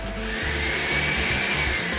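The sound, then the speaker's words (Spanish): A loud, steady electric mixer whirs as it beats a thick tamale batter, its motor drone carrying a faint high whine and low rhythmic chugging, with no voices. “Integrar todos los ingredientes de la mezcla de tamal en la batidora y bate hasta que obtengas una masa uniforme.”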